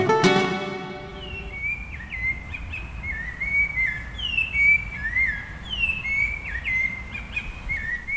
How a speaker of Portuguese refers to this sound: Pois é, esse é o famoso canto do sabiá, né? Que, enfim, é, esse aqui foi gravado pertinho aqui de casa, na Asa Sul de Brasília, numa árvore que ele estava cantando, a gente conseguiu capturar.